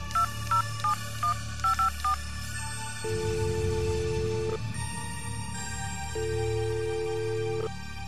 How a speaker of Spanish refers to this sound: tomando mi teléfono llamé a Carlos Pacheco